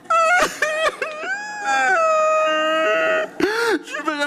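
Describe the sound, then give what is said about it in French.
A voice imitates loud, drawn-out wailing sobs, rising and falling in pitch with a long sustained howl in the middle, forceful, with a few brief breaks between the cries. “Et moi, quand je pleure, là, c'est vraiment triste. Parce que je pleure.”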